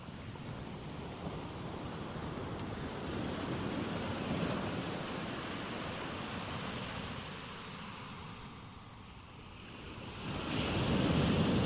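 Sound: waves on a beach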